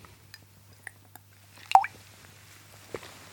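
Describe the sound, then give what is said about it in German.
Someone takes a quiet sip of Karkensdorf tap water: a few small wet mouth clicks, a soft slurp in the middle, then a single swallow, over a low steady hum. “Und ich trinke mal einen Schluck Wasser.”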